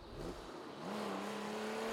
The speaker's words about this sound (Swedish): Bilen for fram på ett helt otroligt sätt. På bara några minuter var de framme hos tandläkaren.